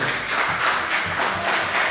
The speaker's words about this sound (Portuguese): Desocupe as suas mãos e juntos vamos dar uma linda salva de palmas à palavra do Senhor.